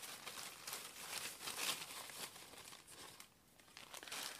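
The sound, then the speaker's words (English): Rustling and crinkling of paper slips being stirred around inside a bag, a steady busy shuffle with brief dips, no voices. “Let's get one from the bottom. Break up some of these in here.”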